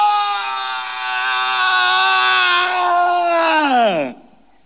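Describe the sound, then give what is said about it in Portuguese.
A man lets out one loud, sustained anguished scream in a palace room for about four seconds, holding a steady strained pitch before it breaks and slides downward into silence, alone. “o … entra numa das salas do palácio e grita: Ah!”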